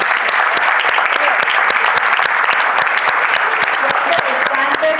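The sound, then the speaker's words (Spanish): An audience applauds a speaker after her talk, a dense, loud wash of many hands clapping with sharp individual claps scattered throughout, sustained for the full few seconds without voices standing out. “Un aplauso.”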